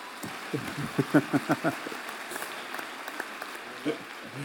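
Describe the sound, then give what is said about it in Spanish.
A short round of audience applause: a quick flurry of claps that fades into scattered, sparser claps, with faint voices murmuring underneath. “un aplauso ahí para apoyar a”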